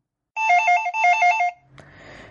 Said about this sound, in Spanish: Suena el teléfono.